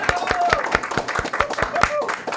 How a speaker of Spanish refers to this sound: dámele un aplauso al señor presidente Luis Abinader. Vamos. Un aplauso.